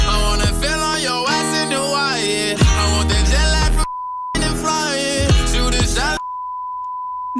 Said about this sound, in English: This is uh, the, the normal version. I had to edit out some stuff, so you'll hear some bleeps, but this is what it sounds like.